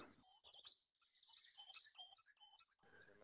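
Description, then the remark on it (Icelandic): High, thin goldcrest song (goldcrest, Europe's smallest bird): rapid, very high-pitched twittering phrases, a brief pause after the first burst, then a continuous string of tiny notes, alone with no voices. “Já eins og til dæmis uh, glókollur”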